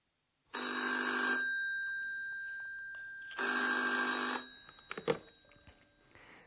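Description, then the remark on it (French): A telephone rings twice at the reception of the Hotel Europa in a German-course scene, a bright, harmonic electronic trill, each ring lasting about a second with a pause between, followed by a click as the handset is picked up. “Un entretien téléphonique entre”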